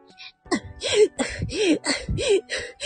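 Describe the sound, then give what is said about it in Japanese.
A voice imitates heavy panting while running: about eight quick, breathy in-and-out gasps in a steady rhythm, some with a soft voiced whine, fairly loud with no other sounds. “なんかよく、うん、あるシーンだと、まあ、アニメとか、ボイスドラマとかで、うーん、あと、走っている時の吐息とか、”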